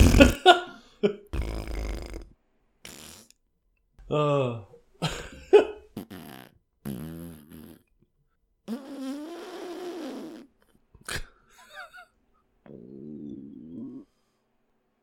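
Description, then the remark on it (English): A string of wet, buzzy fart noises blown with the mouth, several short bursts followed by longer sputtering ones, fairly loud, with a brief grunt of voice among them. “I'm making fart noises with my mouth.”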